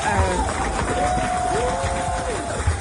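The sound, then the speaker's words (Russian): A crowd applauds steadily throughout, a dense wash of clapping with general audience noise and a couple of sustained whistle-like tones rising over it. “Спасибо за аплодисменты.”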